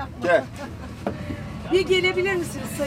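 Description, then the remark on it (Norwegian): Outdoor street ambience in Beşiktaş, Istanbul, Turkey, beside an old parked no-campaign bus not far from the Vodafone football stadium, with a steady low traffic rumble, scattered voices calling out, and a single sharp knock partway through, moderately loud. “Men nå har faktisk en nei-buss tatt oppstilling her i Besjiktas, ikke langt unna Vodafone fotballstadion i Istanbul.”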